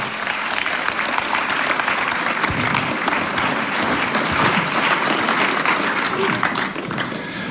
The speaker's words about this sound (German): Herzlichen Dank euch zwei. Wir geben Ihnen nochmals einen Applaus. Vielen, vielen Dank.